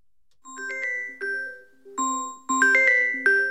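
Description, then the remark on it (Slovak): A bright electronic chime melody, an alarm clock ringtone, plays a series of ringing tones in a steady, rising rhythm, growing louder toward the end, with no voices over it. “Toto nie je príjemná melódia. Akože je to, ale áno. Stále lepšie ako ten prvý budík, áno.”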